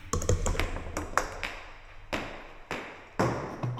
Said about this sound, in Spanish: Billar, había una escena con el billar. Sí, sí, existe una pieza que era con sonido de, de billar.